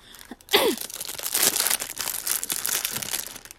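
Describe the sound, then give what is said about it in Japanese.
Continuous crinkling of the thin plastic packaging of a capsule toy, a dense crackly rustle with sharper crunches and rips as it is handled, with a brief vocal sound near the start. “でこれガサガサうっせえな”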